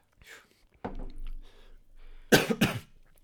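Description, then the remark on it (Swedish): A few coughs: a raspy throaty cough early on, then two sharp, loud bursts back to back near the end, with no talking. “Ursäkta. Host, host.”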